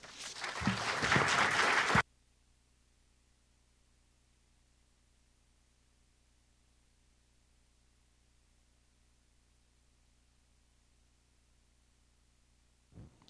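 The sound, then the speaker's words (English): A loud burst of audience applause welcoming a professor before a talk on the mathematics of partisan gerrymandering lasts about two seconds and then cuts off abruptly, followed by a long stretch of near-silence with only a low, steady hum. “Uh, join me in welcoming uh, Professor Dustin Mixon, whose talk is titled uh, The Mathematics of Partisan Gerrymandering.”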